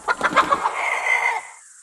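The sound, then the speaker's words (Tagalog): A few quick, rhythmic clucks from a white young hen lead into a short crow from a black rooster, a sustained call that fades out. Both birds are tied up and fairly loud, with no talking. “Ipinahanda ng albularyo sa tatay ko ang isang puting dumalagang manok at isang itim na tandang na hindi pa nangangasawa.”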